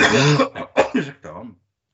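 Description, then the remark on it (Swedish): A person coughs several times in a quick, rough series, the bursts loud, then trailing off into a throaty rasp before silence. “Du låter lite hostig.”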